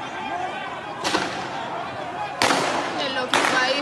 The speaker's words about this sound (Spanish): Le están disparando a todo el mundo